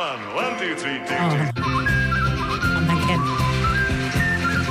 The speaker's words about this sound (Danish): Han kan den også live. Men det lyder som om, han har vand i munden, mens han fløjter, ikke? Altså, han, kan, han har den der vibrato, når han fløjter, ja.